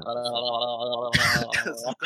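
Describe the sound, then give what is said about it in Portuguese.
A fairly loud voiced hum gives way to a harsh, raspy burst of coughing or throat clearing, followed by a shorter second rasp, with no talking. “vou tossir na de vocês, prometo que eu mudo.”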